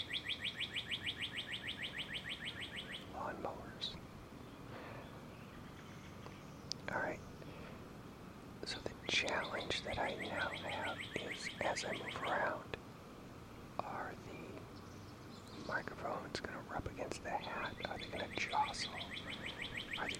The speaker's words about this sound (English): so nice if it was just birds, not all these other noises